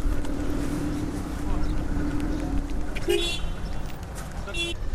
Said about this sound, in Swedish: Tuta på du.